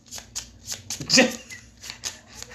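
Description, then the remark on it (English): A deck of playing cards being shuffled during a card game, a quick series of papery riffles and flicks with a louder burst in the middle, over faint background noise. “You shuffled. I shuffled.”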